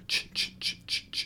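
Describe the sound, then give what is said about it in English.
A voice mimics the chugging, train-like percussion at the start of a song with five quick, evenly spaced breathy 'chh' bursts, fairly loud, with no other sound around them. “The percussion's going like it goes like”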